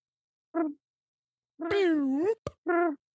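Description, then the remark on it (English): A voice imitates a tricorder scanning device: a short hum, then a long warbling, wavering tone, a quick click, and a final brief hum, fairly loud. “Somebody give me a tricorder noise.”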